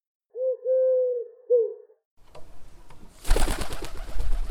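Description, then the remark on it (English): A pigeon coos close by in a few low, throaty, rolling phrases, then the cooing stops and a loud, rushing burst of rustling, flapping noise takes over. “Many of the speedy birds were successful.”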